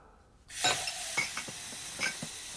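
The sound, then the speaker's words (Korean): Running water pours steadily while dishes and pots clink and clatter in a sink as someone washes the dishes, with several sharp knocks scattered over a couple of seconds, moderately loud. “아, 나 설거지하는 거 안 보여.”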